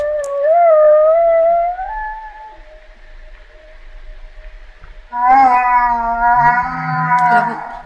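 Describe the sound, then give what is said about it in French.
Humpback whale calls underwater: a long, wavering moan with rising and falling pitch fades out, then a louder, richer harmonic cry answers after a short pause. No voices. “La réponse de la baleine à bosse”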